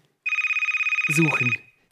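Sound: telephone ringing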